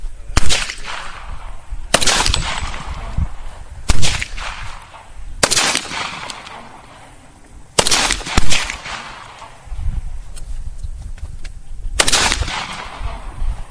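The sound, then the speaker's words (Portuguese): A gunshot sound effect: about six or seven sharp, loud bangs at uneven intervals, each with a brief ringing tail, with no talking. “Ba barulho de tiro com o pé.”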